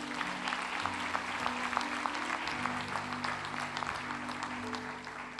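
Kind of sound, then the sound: crowd, audience applauding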